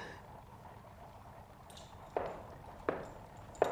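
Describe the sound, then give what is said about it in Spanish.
Hooves of horses ridden by approaching people clip-clop slowly on hard ground, three distinct knocks spaced evenly and growing louder as they draw near, over a low, steady background rumble. “Parece que se oye gente que se acerca a caballo.”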